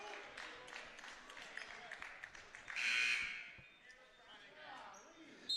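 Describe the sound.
A single sharp, shrill referee's whistle blast at a Wildcats versus Lumberjacks basketball game, calling a foul on the Lumberjacks in the backcourt, cuts through the steady murmur of the crowd, with shoe squeaks and scattered voices continuing before and after.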